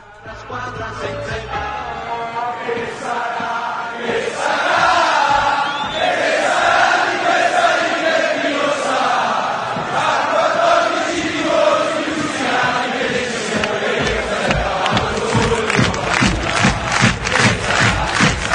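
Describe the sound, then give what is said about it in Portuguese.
A large stadium crowd of football fans chants in unison a song mocking Inter supporters as only 14 fans who follow the team to away games, loud and sustained for the whole stretch, massed voices rising and falling with a steady rhythmic pulse. “ela aqui faz uma brincadeira com a torcida da Inter, dizendo que são só 14 torcedores que quando o Inter joga fora vão assistir a Inter.”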